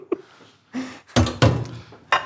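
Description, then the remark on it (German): A metal lid clatters onto a cooking pot with a few scraping, clanking knocks, fairly loud, ending in one last sharp clink. “Dann legen so. wir einen Deckel wieder rein.”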